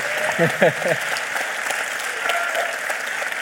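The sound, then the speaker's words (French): A live audience at the Forum des Images applauds in a dense, steady wash of clapping, with a voice briefly speaking over it near the start. “Salut c'est nos ciné, votre rendez-vous avec le cinéma dans une configuration tout à fait singulière puisque nous sommes, vous l'avez entendu, en public au Forum des Images, invités par nos camarades de Panique et de Chroma”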